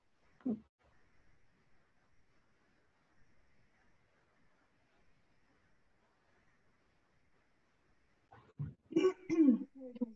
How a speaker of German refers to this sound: jetzt räuspern. oh, um wieder hier anzukommen.